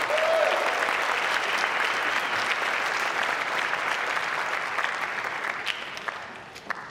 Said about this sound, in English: One more big round of applause for our amazing kiddos.